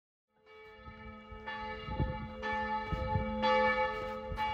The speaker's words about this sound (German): die Adelbotner Kirchenglocken heute. Wer sie aus der Nähe beobachten will, muss durch ein kleines Eingangstor vor der Kirche gehen.